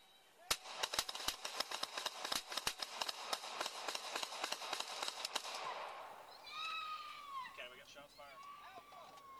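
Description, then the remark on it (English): A rapid, sustained volley of police gunfire, almost 50 sharp, loud cracks fired into a Ford pickup truck in irregular quick succession for several seconds, then it stops and raised voices shout in the aftermath. “So as you see there, almost 50 rounds fired into the Ford pickup truck”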